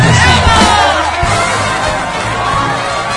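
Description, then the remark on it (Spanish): A crowd cheers and applauds a singer loudly and steadily after her song, with whoops and shouted voices rising over a dense wash of clapping for the whole stretch. “Este aplauso es para ti, te lo mereces, te lo has ganado.”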